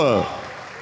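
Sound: audience applauding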